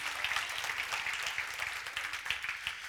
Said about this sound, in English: Amen. Can we get an amen? Can we get a hand clap for the Lord today?